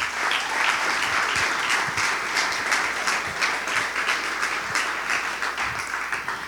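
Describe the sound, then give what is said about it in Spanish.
Sustained applause from an audience at a Christian service, given for a Bible reading, a dense, steady wash of many hands clapping at once with no pauses, loud and even throughout, with no voices standing out. “¿No le damos un fuerte aplauso a esta palabra?”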